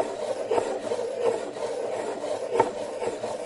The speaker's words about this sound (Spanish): Incluso se empezó a escuchar las burbujas o un ruido semejante al arrastrarse arañando la mesa de aquel salón con insistencia.